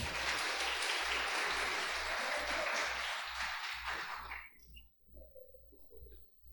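A crowd claps steadily in a dense, loud burst of applause for about four seconds, then it thins out and fades away, leaving a faint low hum underneath.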